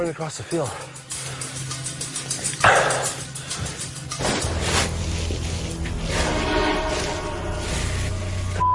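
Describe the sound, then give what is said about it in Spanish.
Wild dogs bark and yip in repeated bursts over a busy, noisy background, with voices and other commotion mixed in. The barking is loud at times. “Estoy oyendo perros salvajes y disparos.”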